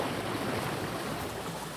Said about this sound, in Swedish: den största fördelen är att du har inget ljud från motorn. Du hör ju vågskvalp